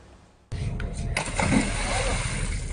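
A remote-controlled water rescue drone used by Shanghai border and port police on the Huangpu River suddenly kicks into action after a brief quiet moment, its small motor whirring steadily with churning, splashing water.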